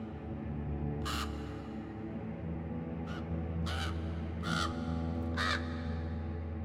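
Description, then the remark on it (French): A crow caws five times in harsh, raspy calls, one early and then four closer together, standing out clearly over a steady low rumbling background. “furieuse, elle surgit soudain à califourchon sur un gros corbeau et hurle d'une voix de tonnerre.”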